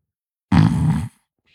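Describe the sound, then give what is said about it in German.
A person imitates a snore into a very insensitive microphone, held very close, with one loud, rattling inhale lasting about half a second, followed by silence; only the inhaling snore is audible. “Oh, das, oh, das geht nur das Reinschnarchen. Das Rausschnarchen ist bei diesem sehr unempfindlichen Mikrofon gar nicht zu hören.”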